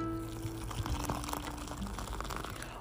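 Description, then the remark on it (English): Nescafe coffee brewing in the morning in a small red teapot named Savannah: liquid bubbling and pouring steadily, with a dense, continuous gurgling wash and occasional sharper spurts, with no talking. “As we wait for our delicious, delectable cup of Nescafe to brew this morning”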